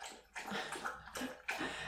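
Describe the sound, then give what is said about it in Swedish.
A dog slurping water from a high-sided bowl in a house, with wet, splashy lapping in three sustained surges separated by short pauses. Moderately loud, with no voices. “Eller Ni kanske inte hör det men eh, han är bra på att sörpla min hund.”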